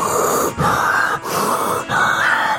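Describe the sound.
A voice imitates a person breathing heavily, taking in air in large gulps: three long, loud, rasping pulls of air in steady succession, with brief gaps between them and no speech.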